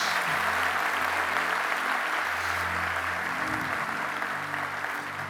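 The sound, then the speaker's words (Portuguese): Sustained audience applause in praise of the Lord, a dense, steady wash of many hands clapping for about five seconds with a low hum of tones underneath, tapering slightly at the end. “Se eu fosse você, dar aquele aplauso ao Senhor.”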